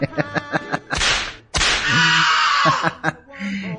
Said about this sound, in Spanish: es pues un par de buenos latigazos, chingadazos, como le quieren llamar.